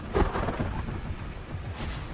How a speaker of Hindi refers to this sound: चारों ओर बिजलियां चमकने लगी बादल आपस में टकराकर कड़कने लगे और बड़े बड़े ओले बरसने लगे